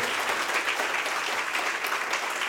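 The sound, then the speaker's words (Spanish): Steady audience applause for the speaker's parents, a dense crackle of many hands clapping at once, holding an even loudness throughout with no voices breaking through. “Un fuerte aplauso a mis padres, donde quiera que estén”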